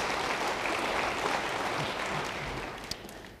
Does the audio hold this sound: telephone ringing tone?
no